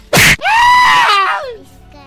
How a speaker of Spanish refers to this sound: Oh my god, gritaste muy feo.